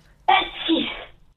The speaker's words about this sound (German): Gesundheit.